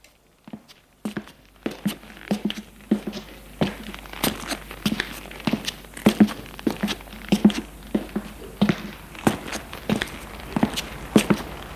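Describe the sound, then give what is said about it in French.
A steady series of footsteps, fairly distinct, thudding along at an even walking pace for several seconds with no voices, as people go downstairs to the bottom of an apartment building. “Et il la fait descendre en bas de son immeuble.”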